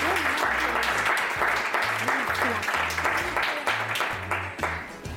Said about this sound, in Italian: Beh, un grande applauso per Angelina Jolie.